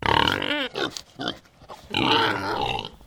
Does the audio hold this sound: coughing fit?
no